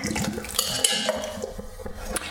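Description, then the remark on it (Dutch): Thick liquid glugs and splashes as a can of coconut cream is poured into a smooth, blended orange soup, a steady wet pouring with a few small clinks from a pot, lasting a couple of seconds. “Op het laatst doe ik er ook nog een blikje kokosroom bij.”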